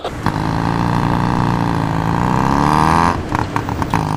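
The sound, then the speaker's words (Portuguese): A tuk-tuk, a small open vehicle, drones its small engine loudly and steadily for about three seconds, pitch shifting slightly, then breaks into a few sharp clattering knocks amid traffic noise. “Tuk-tuk são aqueles carrinhos que andam aberto.”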